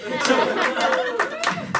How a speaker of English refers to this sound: Anyway, we're moving on to a segment because we both do improv and segment work. You can clap for that. You don't have to.